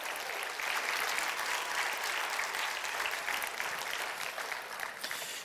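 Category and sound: crowd, audience applause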